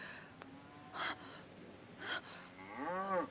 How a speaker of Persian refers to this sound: گاو بود آری آری اطمینان دارم صدای گاوی بود